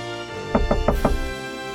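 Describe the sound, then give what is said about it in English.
Four quick, evenly spaced knocks on the doctor's wooden door late at night, moderately loud, with no voices. “John knocks on the doctor's door.”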